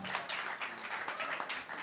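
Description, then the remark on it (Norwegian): An audience applauds a volunteer coming up on stage, a dense, steady wash of many hands clapping at once, holding at an even loudness throughout with no voices standing out. “Applaus, folkens!”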